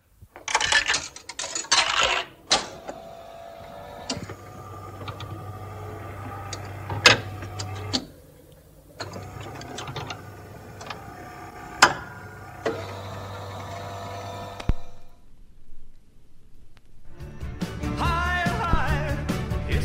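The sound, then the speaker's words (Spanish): A coin rattles into a jukebox, followed by a low motor hum with sharp mechanical clicks and clunks as a song is selected, and then music begins to play at the end. “Eh, vamos a recordar ese sonido tan característico de meter la moneda y elegir la canción que nos gustaba.”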